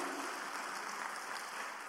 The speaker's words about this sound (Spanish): Denle un aplauso al Señor entonces, por favor.